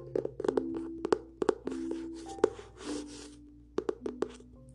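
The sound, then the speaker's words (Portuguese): A hardcover copy of Agatha Christie's Murder on the Orient Express, Nova Fronteira edition, is handled, with a series of sharp taps and knocks against its stiff cover, soft rustling and brushing of pages in between, and a faint low hum underneath. “É um livro que possui a capa dura, como vocês puderam notar pelo barulho.”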